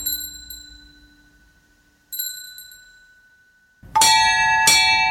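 A ring of eight church bells at Aldgate in the City, dating from 1700 and tuned in E, ring out in separate clanging strikes, each leaving a long, shimmering hum, with the last two strokes coming louder and brighter in quick succession.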